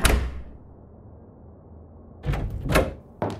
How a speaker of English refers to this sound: They march out of the front door and slam it behind them.